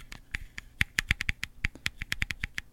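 Rapid, uneven clicking of fingernails tapping on a hard plastic card reader that plugs into a laptop, crisp, a quick irregular series of sharp taps much like typing, with no voices.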